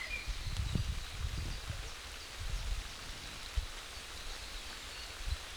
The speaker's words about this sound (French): Tiens, il pleut.